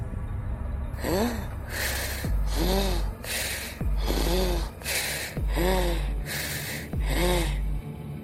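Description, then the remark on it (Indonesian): Very heavy, labored breathing from inside a girls' tent repeats in a steady rhythm of about six loud, rasping breaths, each with a strained, gasping edge, with no talking. “Dan tidak berselang lama, terdengar ada suara nafas yang sangat berat dari dalam tenda cewek.”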